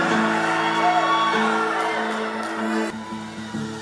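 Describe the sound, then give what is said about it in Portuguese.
A crowd, urged to celebrate, erupts in loud, sustained shouting and whooping as a cry of freedom, many voices blending into a dense roar that holds steady for several seconds, with a strong sung or shouted tone running underneath. “Que tal você dar aquele grito de liberdade? Aleluia!”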